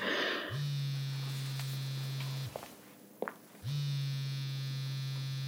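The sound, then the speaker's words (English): A cell phone vibrates with two long, steady buzzing pulses separated by a short pause and a couple of faint clicks. The buzzing is fairly loud, with no voices. “It's not like either of us have a cell phone or a yearn on to play snake. Let it go to voicemail.”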